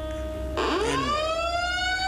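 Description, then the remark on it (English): A fire alarm sounds loudly, a steady electronic tone that breaks into a harsh burst and then sweeps upward in a rising wail. No one speaks. “well, anyway, the fire alarm was going on, so, so I knew I, I knew something.”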